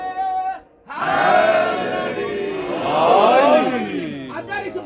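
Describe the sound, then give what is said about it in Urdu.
A crowd shouts a religious slogan in loud unison, one man leading briefly before a short pause, then many voices roaring together in sustained, swelling waves of chanting. “بھائی نے نعرہ نہ لگوایا ہوتا تو میں مضمون یہی ختم کر دیتا لیکن اس بھائی کے نعرے کے صدقے وہ بھی سن لیں جو ابھی چپ کر کے بیٹھے”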